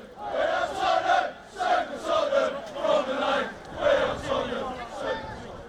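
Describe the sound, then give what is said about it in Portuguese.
A large crowd of Tottenham football supporters chants together at Emirates Stadium, loud and rhythmic, repeating a sung phrase in steady pulses with a broad wash of many voices. “Eu ia dar uma volta para gravar outra torcida, mas hoje o Tottenham mereceu ficar com esse destaque.”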